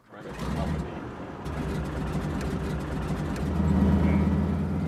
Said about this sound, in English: Chris, Heather, and I pile into the tiny plane, and the pilot Dennis fires up the engine.